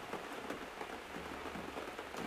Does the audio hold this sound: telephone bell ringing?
no